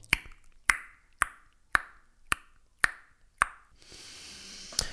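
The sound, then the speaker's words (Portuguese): A mouth imitates a ping-pong ball bouncing with seven crisp, hollow pops at a steady rhythm, fairly loud, followed by a brief hiss and one last pop. “e reparei, entretanto, que antes de ir para esta frase fiz que é o barulho que faz uma bola de ping-pong.”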